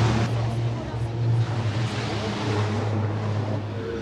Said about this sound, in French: Donc là, nous sommes dans les paddocks, c'est là que les différentes écuries euh, préparent les camions avant euh, d'aller en course.